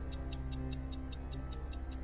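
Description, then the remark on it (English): A countdown clock timing a 30-second turn ticks steadily, about five crisp ticks per second, over a low continuous hum. The ticking is moderately loud, with no voices present. “you now have 30 seconds. Let's let the clock go.”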